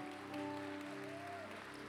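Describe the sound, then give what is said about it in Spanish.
An audience applauds God loudly in a steady, dense wash of clapping for about two seconds, with sustained keyboard-like tones holding underneath and no one speaking. “Así que vas a aplaudir, apláudele fuerte.”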